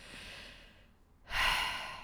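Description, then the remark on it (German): A heavy, exasperated breath: a long audible exhale that trails off, a brief pause, then a sharp, forceful intake of air. No talking. “Da muss ich wirklich, genauso wie ich es jetzt mache, meist schwer, schwer atmen.”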